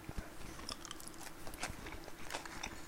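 Crunchy chewing and biting of bread during a lunch break, with irregular moist mouth noises and soft crackles continuing steadily for a few seconds, no talking.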